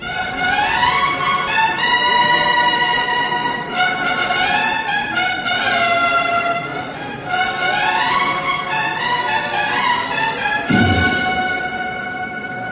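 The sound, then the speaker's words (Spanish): A brass band plays the slow, solemn processional march Hispalis at La Campana, loud and continuous, with sustained swelling melodic lines and a low drum thump near the end; no one speaks. “Eh, estamos aquí escuchando la última que se tocó en, la campana, que fue Hispalis.”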